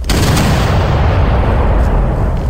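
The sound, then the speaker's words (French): A dense, continuous barrage of heavy cannon fire in a battle between ships, with d'Iberville's cannon fire aimed at the enemy ship's hull, loud and booming with deep rumbling low end, the blasts blurring together into a roaring wall of sound with no voices. “D'Iberville concentre toutes ses charges de canon vers la coque de l'ennemi.”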